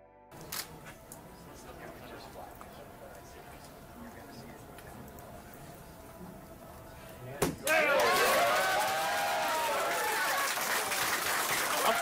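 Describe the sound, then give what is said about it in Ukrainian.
In a mission control center, faint clicks and murmurs, then a sharp bang gives way to a sudden, loud eruption of cheering and shouting by the control staff, sustained until the end, as the Juno spacecraft's engine burn ends and it enters orbit around Jupiter. “Після підтвердження виходу на орбіту працівники центру управління вибухнули радісними вигуками, а члени команди тиснули одне одному руки і обнімалися.”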